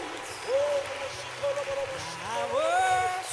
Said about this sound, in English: Keep clapping your hands if you believe it. Keep clapping.